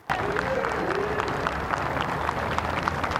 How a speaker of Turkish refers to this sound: Anıtkabir'deki resmi tören biterken Erdoğan bu kez avludaki sivillerin alkışları ve tezahüratlarıyla ayrıldı.